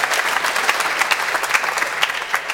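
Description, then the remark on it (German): Sustained applause from a group, a dense wash of overlapping hand claps with sharper individual claps popping out irregularly, steady and fairly loud throughout with no voices. “Ja, da kann man ruhig mal klatschen.”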